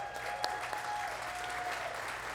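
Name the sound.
audience applause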